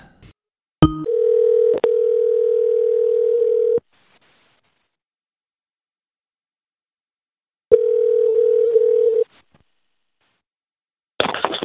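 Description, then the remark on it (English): A telephone tone hums steadily while a call goes out: a sharp click, then a long flat electronic beep, a few seconds of silence, and a second shorter beep before a burst of noise. “Let's go ahead and call up Brad real quick.”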